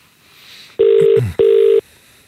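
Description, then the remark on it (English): Two steady electronic ringback tones, each lasting about half a second with a short gap between, heard clearly over a phone line as an outgoing call rings out. “So, so let's give him a ring.”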